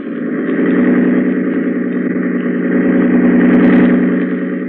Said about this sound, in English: Grady, hold tight to the wheel and open the engine up full.